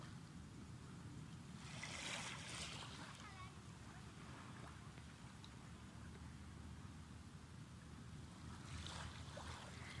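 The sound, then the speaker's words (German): Ocean waves wash against the shore in the Philippines, a steady low rumble of surf with two brighter hissing surges as water rushes in, without any talking. “Ähm, ich sitze am Meer und ich gebe euch mal einen kurzen Einblick in ja, die Geräuschkulisse hier.”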